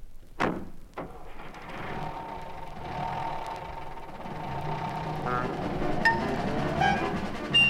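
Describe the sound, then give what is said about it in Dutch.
A car engine cranks with a couple of sharp bursts, then catches and settles into a steady, rumbling idle that holds fairly loud for several seconds. “Zullen we in gedachten een ritje maken? Stapt u dan maar in en eh, start u maar.”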